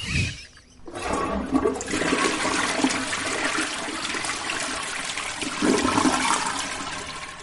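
A toilet flushes with a loud, steady rush of water that roars for several seconds, starting abruptly after a brief pause and staying strong.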